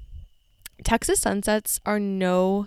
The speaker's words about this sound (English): I am in Texas right now for the next week, and I'm in the middle of nowhere. I don't know if you guys can hear crickets in the background, but currently recording this episode as the sun goes down.